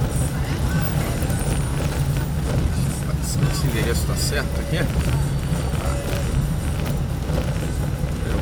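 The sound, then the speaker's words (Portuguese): Continuous rumble and jittery rattling of a car rolling over a stone-paved street in Freguesia, Jacarepaguá, heard from inside the vehicle, with a person speaking briefly over the noise. “Ah, odeio andar com o carro aqui.”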